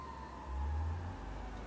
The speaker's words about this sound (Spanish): Eh, son una sirena y no sé si es una ambulancia que a esta altura es un grito muy largo, parece una ambulancia.